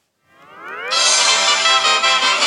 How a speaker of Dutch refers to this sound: Sorry, maar ik ga even naar de ringtone op mijn telefoon, want mijn ringtone is al jaren dit.